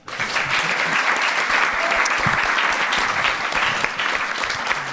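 Sustained audience applause for a columnist's segment at the end of the Studio 404 show, a dense wash of many hands clapping at a steady, fairly loud level for the full five seconds, with a faint murmur of voices underneath.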